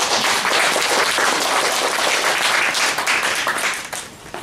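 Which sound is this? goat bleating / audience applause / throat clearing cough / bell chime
audience applause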